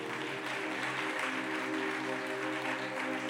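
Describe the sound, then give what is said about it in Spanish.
An audience claps loudly and steadily for several seconds in applause to the Lord, a dense, even roar of hands over a sustained musical chord that holds underneath, with no one speaking. “Te otro aplauso fuerte al Señor.”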